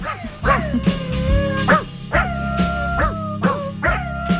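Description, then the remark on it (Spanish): A pharmacist's dog named Frenadol barks about eight times in a steady, quick rhythm, loud, its barks stretching into whining, howl-like tones, with a low steady hum underneath and no talking. “Por ejemplo, esta farmacéutica ha llamado a su perro Frenadol.”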